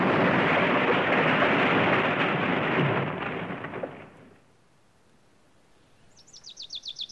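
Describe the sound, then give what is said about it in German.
An airplane crashes into a small wood and explodes: a loud, roaring crash and explosion rumbles for several seconds, then fades into near silence before a quick run of high bird chirps. “Das Flugzeug raste weiter und krachte hinten in das kleine Wäldchen.”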